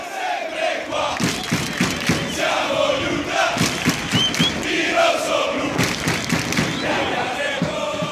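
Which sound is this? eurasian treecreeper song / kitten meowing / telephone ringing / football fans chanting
football fans chanting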